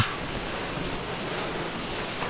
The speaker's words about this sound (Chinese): 好，今天的话是二零一七年五月二十六日晚。今天的话，深圳这边的话，呃，突然下起一场雨啊，啊，这雨声非常好听。